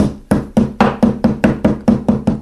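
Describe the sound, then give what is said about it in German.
Around nine steady, rapid thuds of a meat mallet pounding small, thin schnitzel cutlets flat, each a dull impact on a board, evenly spaced with no talking. “Ich habe hier kleine Schnitzel vorbereitet. Ich klopfe die ein klein bisschen mal eben an.”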